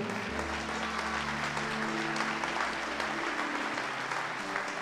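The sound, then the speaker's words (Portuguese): An audience applauds the Lord during a sermon with steady, dense clapping that holds at an even level throughout, backed by a low sustained organ or keyboard drone. “Pode aplaudir o Senhor.”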